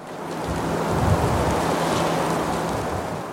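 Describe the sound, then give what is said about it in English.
A dense, steady roar of heavy rain, with a low rumble of thunder swelling briefly near the start and then settling back into the constant downpour; no voices. “There might be heavy rains”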